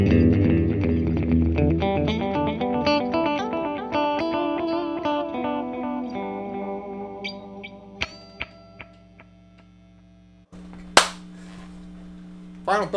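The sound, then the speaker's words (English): Electric guitar played through a 1990s analog delay pedal, a run of notes smearing into trailing echoes that fade out, followed by a few sharp clicks and a short burst of hiss near the end. “The one difference that I really did notice overall, besides the slight differences in tonality, the modern one does seem to have a slightly shorter delay time.”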